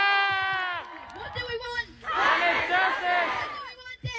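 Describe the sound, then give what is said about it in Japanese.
An outdoor rally crowd of young climate activists from around the world, in a park right next to the COP venue, erupts in loud cheering and shouting during Greta's speech, many voices rising together in a sustained roar for a couple of seconds after a few strong shouted calls. “これは、えー、っとコップの会場のすぐそばの公園で若者たち世界中からこの気候活動家である若者たちが集まってあの、ね、マイクを渡してそれぞれのスピーチをした中でのグレタさんのスピーチでした。”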